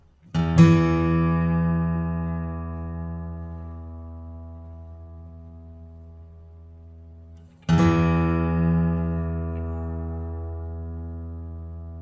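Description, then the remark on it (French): A low E guitar string, played as on a 12-string guitar with an exaggerated beating effect, is plucked twice, several seconds apart, each note ringing out long with a pronounced wavering beat as it slowly fades. No voices. “je vais exagérer un effet de battement pour que vous ressentiez un peu les choses, avec un mi grave joué comme sur une guitare 12 cordes.”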